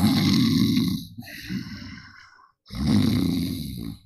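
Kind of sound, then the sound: vocal imitation, imitated snoring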